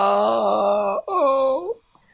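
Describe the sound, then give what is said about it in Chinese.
A voice imitates a princess crying and wailing loudly: two long, sustained wails, the first steady and drawn out, the second shorter and sagging in pitch before it trails off. “爱哭公主坐着哭，躺着哭，趴着哭，滚来滚去，一直哭，哇哇哇！”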